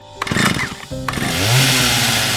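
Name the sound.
chainsaw running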